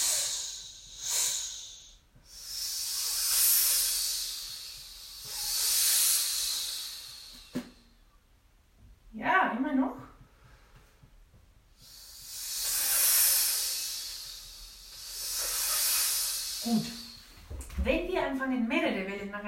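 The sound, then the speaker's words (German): A voice makes long breathy "sch" hisses in two waves, each swelling and fading twice, with short bits of talking between and after them. “Jetzt mit nochmal zwei Wellen nacheinander. Sch.”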